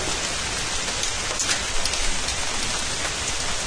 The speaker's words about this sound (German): Und solange man im Trockenen sitzt, ist so ein bisschen Regen. Finde ich immer ganz angenehm.